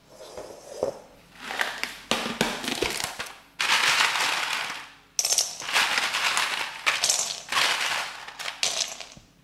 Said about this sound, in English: Okay, now you're gonna get a bigger bowl, a bowl bigger than the one you have the chocolate in, and fill this bigger bowl with ice.